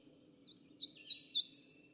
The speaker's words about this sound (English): It was like maybe 6:30 in the morning, maybe 7, and I was surrounded with bird song. The wood thrush